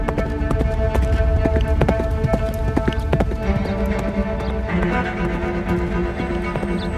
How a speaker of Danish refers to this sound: Inden han smækker døren i, sætter sig i sadlen på sin yndlingshest og rider ud i natten.